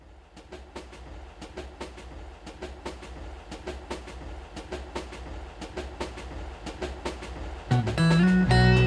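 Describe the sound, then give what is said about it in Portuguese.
A train rolls along the rails with a steady, rhythmic clickety-clack of wheels over track joints, loud, before a strong horn blast cuts in at the very end. “O trem apita, rangem as molas.”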